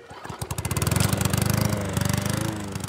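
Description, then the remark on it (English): A push lawn mower engine runs steadily as a man mows the grass of a big yard in front of a white ranch home in a narrow valley in Canada, Kentucky. Its rapid chugging putter is loud and continuous, with a slight rise in pitch partway through. No voices are heard. “Danny Smith pushes a lawnmower in front of his white ranch home in a holler”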